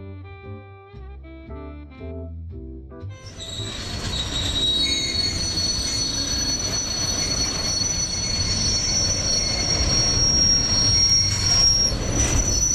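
A few soft musical notes give way to a regional train travelling fast, rolling loudly along the track, its steady rumble topped by a sustained, piercing metallic squeal from the wheels.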